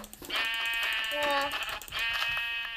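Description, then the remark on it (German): A sheep bleats in a video game, a nasal, buzzy, sustained cry lasting a couple of seconds with a brief break in the middle, fairly loud. “Digga, Schafe halten gefühlt nichts aus.”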